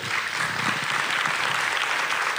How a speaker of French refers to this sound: Bah écoutez, on va d'abord merci. Merci à tous les trois. On vous applaudit.